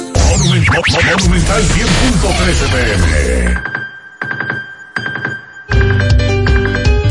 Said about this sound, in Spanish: Esta es la alarma que te pone a gozar y ahorrar chelitos con Vivi Economy